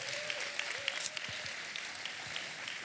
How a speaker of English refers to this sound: And so I think it'd be appropriate one more time to give our pastors, come on, big hand clap. We love you guys.